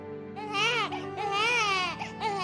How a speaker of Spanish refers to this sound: Cuando llegaste a este mundo, tú llegaste llorando.